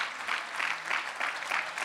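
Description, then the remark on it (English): An audience claps their hands together to thank the Lord for their pastor and his wife, in steady, dense applause, a broad crackling wash that swells and eases in rolling pulses, with no voices standing out. “Once again, can you clap your hands and thank the Lord for your pastor and his wife?”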